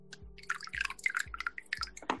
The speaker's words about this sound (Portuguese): Dá para ouvir o barulho do meu café servindo?